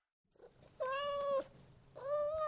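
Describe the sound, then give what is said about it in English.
A cat meows twice in a studio: a long, steady mew followed by a second one starting about a second later, with no talking over them. “Got fucking both cats riding in the podcast studio with me tonight.”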